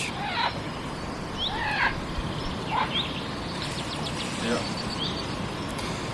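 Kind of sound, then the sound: bird, chaffinch singing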